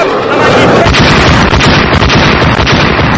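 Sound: explosion sound effect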